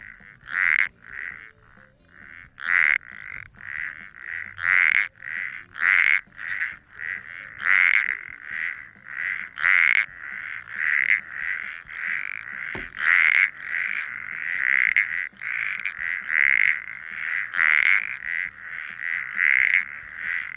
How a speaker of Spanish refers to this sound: esta especie es la llamada comúnmente como ranita de antifaz